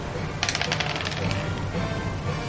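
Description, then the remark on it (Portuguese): Two dice clatter and tumble across a hard tabletop in a quick burst of rapid clicks, settling within about a second on a two and a six, with no talking. “Dois dados.”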